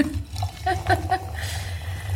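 Wine is poured into a glass, a short gurgling splash with a few bright glugs before it settles into a soft trickle, over a low steady background hum.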